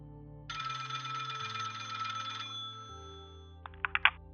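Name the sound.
telephone ringing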